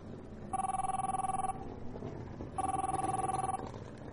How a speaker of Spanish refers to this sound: Miguel iba de camino a su casa cuando sonó su móvil.